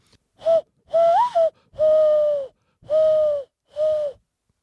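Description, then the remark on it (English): A dove call made by blowing into a fist, used to call doves in: five breathy, hollow hoots, the second with a rising lilt, the middle ones drawn out, fairly loud with no talking. “She could blow her fist, and she taught all us younguns how to do it, and I ain't never forgot it comes in pretty handy when you're calling doves in.”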